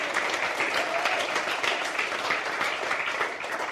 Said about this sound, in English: Could you give our worship team a hand clap? They work hard for you.